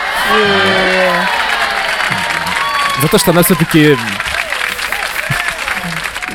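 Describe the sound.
Steady applause from a small crowd fills the background while a man speaks over it, with a brief burst of cheering in the middle before the clapping continues.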